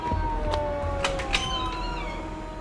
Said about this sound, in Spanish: El sonido de la sirena de la policía acercándose hizo reaccionar a la niña, que echó a correr hacia el portal.